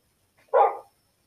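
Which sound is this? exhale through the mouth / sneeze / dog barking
dog barking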